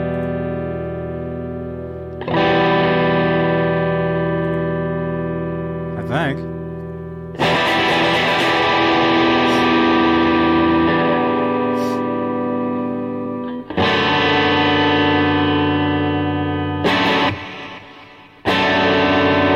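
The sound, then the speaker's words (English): An electric guitar played through an effects unit during a sound check rings out through heavy effects, several strummed chords with sustained, distorted tones that swell and decay, separated by brief gaps and sharp pick attacks, loud. “Just gotta do a quick sound check here.”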